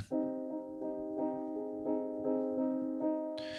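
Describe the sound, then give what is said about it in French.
Soft, muted notes on a felt-dampened piano repeat in a steady, even pulse, each onset gentle and rounded with a warm, dampened tone, played alone at moderate volume before a brief noisy rustle at the end. “là, mon piano, il est feutré.”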